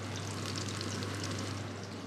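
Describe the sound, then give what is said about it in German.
Steady crackling hiss of food frying in a pan in a home kitchen, with fine pops scattered through it over a low constant hum, and no voices. “Man hört es vielleicht brutzeln.”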